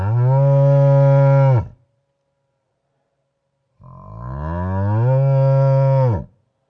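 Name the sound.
cow mooing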